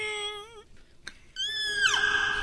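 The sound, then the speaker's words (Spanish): A voice imitates a whale call with two long, wavering, high-pitched moans, the second ending in a downward swoop, separated by a brief click. It is fairly loud. “¿Cómo hace la ballena? Ándale así, tiene un ruido raro.”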